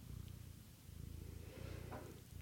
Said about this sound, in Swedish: Gulligull. Det hörs ju att hon spinner. Ja.